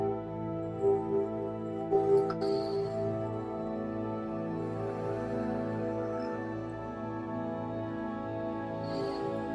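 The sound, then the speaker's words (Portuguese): A meditation bell rings during a guided breathing meditation, with a sustained, shimmering hum, struck again softly around two seconds in, its layered tones lingering steadily throughout without any voices. “Ouça o som do sino.”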